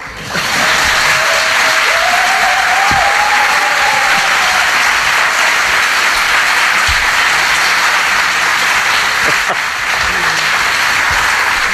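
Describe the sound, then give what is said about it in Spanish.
Sustained, loud applause from a large audience, dense continuous clapping with a faint rising whistle early on, holding steady for about twelve seconds. “rodeados de volúmenes y de espectadores tan entusiastas estos últimos con nuestra presencia que van a recibirnos con una gran ovación espontánea.”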